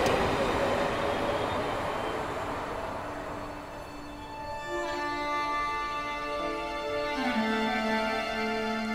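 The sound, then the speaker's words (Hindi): The last metro train of the night pulls away with a broad mechanical rumble, its electric motor whine rising in steady tonal steps as it gathers speed, loud. “रात की आखिरी मेट्रो भी चली गई और उसके साथ वो शख्स भी चला गया जिसे नहीं जाना”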